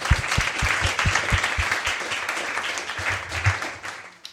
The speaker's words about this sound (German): Erstmal einen großen Applaus auch für den Arif und dann Arif.